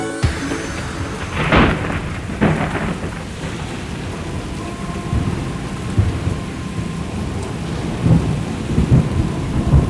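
A heavy thunderstorm: steady rain hisses throughout while deep, rolling thunder rumbles, with sharper cracks early on and swelling booms near the end.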